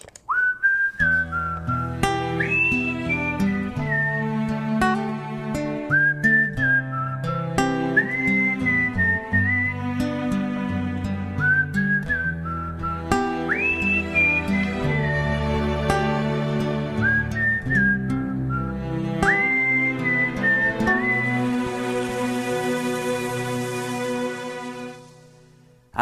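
A song's instrumental opening plays, a high, whistle-like melody gliding over steady bass and chords at an even, moderate loudness, with no voices, ending on a brighter shimmering swell.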